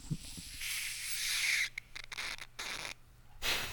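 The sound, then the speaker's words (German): A bottle of fizzy drink with an orange twist cap hisses as the cap is loosened, a steady fizzing rush broken by short pauses and bursts as the cap turns, with no one speaking. “Hört ihr, wie es zischt?”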